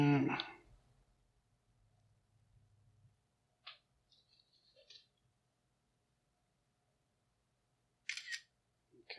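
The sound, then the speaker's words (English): A camera shutter clicks sharply at the start as a picture is taken, followed by quieter mechanical clicks and handling noises, then another crisp shutter burst near the end. “another picture.”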